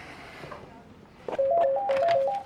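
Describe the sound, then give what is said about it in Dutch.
A rapid run of short electronic beeps in stepping pitches, telephone keypad tones being dialed to transfer a call, loud after a brief quieter stretch of room noise. “Maar stel nu dat ik hem wil doorverbinden”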